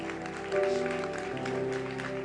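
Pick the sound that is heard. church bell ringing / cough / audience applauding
audience applauding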